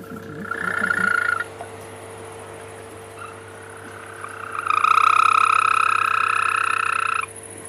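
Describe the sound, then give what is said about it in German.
A European green toad gives a short high trill, then after a pause a longer, louder, steady purring trill lasting a few seconds, over a faint constant background hum. “Das ist also jetzt die Wechselkröte.”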